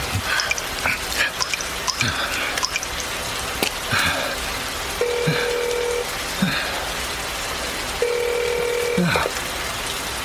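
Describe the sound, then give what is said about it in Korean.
A telephone line tone sounds in two steady, mid-pitched buzzing bursts about a second long each, separated by a pause, over a constant hiss of rain and a few faint murmurs, as a mobile phone call to emergency number 119 is attempted on a mountain hiking trail in the rain. “자, 자, 아, 내가 다시 전화를 해볼게요.”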